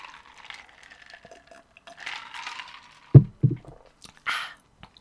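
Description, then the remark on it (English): Someone sips vodka: faint glass clinks and liquid sounds, two dull knocks like a glass set down on a surface, then a brief breathy exhale. No talking. “Actually, I'm going to have another sip of vodka just in case.”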